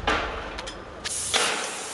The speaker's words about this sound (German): und mehrere hundert, vor allem Männer, die darin gearbeitet haben, die haben gelernt, die haben mit Hämmern Stahl gerade gebogen, die haben geschweißt, die haben an Motoren herumgeschraubt in einem kleinen Zelt, um sie vor Staub zu schützen.